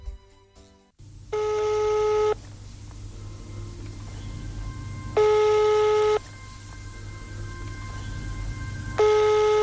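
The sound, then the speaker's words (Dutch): A telephone rings repeatedly through an earpiece before the call is answered, three evenly spaced ring bursts separated by pauses, over a steady low hum of background noise and no talking. “Neem nou eens op, man.”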